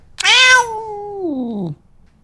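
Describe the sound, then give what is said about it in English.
A single drawn-out meow from Cringer, a cat recorded with a microphone a few inches away: loud, starting bright and harsh, then sliding down in pitch into a low, moaning tail over about a second and a half. “The cat quickly got used to having a microphone a few inches away”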